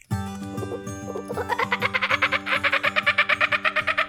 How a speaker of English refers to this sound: Was that a real kookaburra or a human doing a bird call? I think it's real. Actually, I don't know.